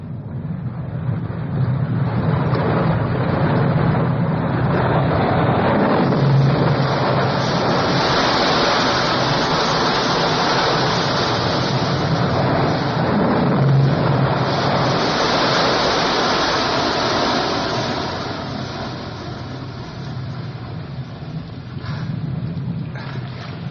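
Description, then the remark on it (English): A sound effect from the film Doctor No: loud, continuous rushing and crashing water in a tunnel fills the space with a dense roar, swelling and surging for over twenty seconds with a hollow, enclosed quality. No voices are present. “I did the water oh, crashing.”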